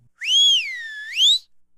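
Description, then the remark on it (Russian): A single human whistle, clear and fairly loud, lasting just over a second: it slides up, dips slowly in the middle, then swoops up again before stopping. No one speaks. “Не вздумайте свистеть, особенно с наступлением темноты.”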